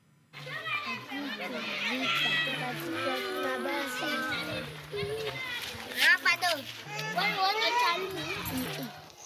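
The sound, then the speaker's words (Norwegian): Children playing in safe surroundings at a children's centre run by the Sandnes organization New Chance in the Democratic Republic of the Congo: many high, lively voices shouting, chattering and calling over one another in a steady, busy stream, with a few louder excited bursts near the end. “Lyden av barn som leker i trygge omgivelser er ikke noe man tar for gitt i Den demokratiske republikken Kongo.”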